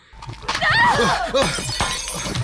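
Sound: glass shattering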